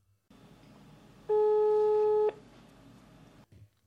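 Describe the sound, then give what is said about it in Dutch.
A single steady telephone ringing tone of about a second, heard while a call is being placed to a man, rising clearly over a faint background hiss and then cutting off. “Nou, laten we die man maar eens bellen, want hij kreeg volgens mij ook een heel bijzonder aanbod.”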